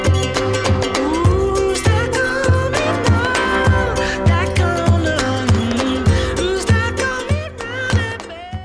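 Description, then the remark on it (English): The slightly longer mono version of a full-band rock song's outro plays loud, steady drum hits driving a regular beat beneath a sung melody line and layered instruments, continuing without a break toward the song's ending. “and here's the mono. We can hear a little bit more of those … lyrics.”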